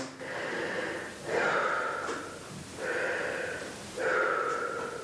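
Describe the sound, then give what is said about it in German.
A patient breathes deeply in and out through an open mouth while a doctor in Berlin listens to the lungs during an examination for a cough: four long, airy inhales and exhales in a steady rhythm, with no talking. “Also jetzt horche ich Ihnen erstmal die Lunge atme mit offenem Mund tief ein und aus.”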